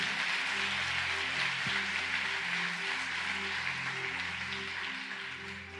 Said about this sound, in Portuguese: Olha para o teu irmão. Isso, aplauda o Senhor, celebre.